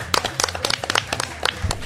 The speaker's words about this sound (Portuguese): Palmas para mestre cervejeiro. Palmas, palmas, pera aí.